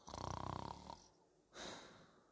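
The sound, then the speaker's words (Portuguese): A voice imitates the snoring of a man who fell asleep while watching a film: a loud, rattling inhale with a buzzing, pulsed texture, followed after a short pause by a breathy, hissing exhale. No words are spoken. “Olho para os gajos, o gajo tinha adormecido. E estava a ressonar.”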